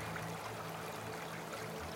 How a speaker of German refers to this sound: Wenn man auf die sprudelnde Wasseroberfläche schaut, kann man jedes Steinli und Steckli im Fluss ganz klar erkennen, wie durch ein Vergrößerungsglas.